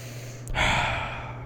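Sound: voice imitating heavy breathing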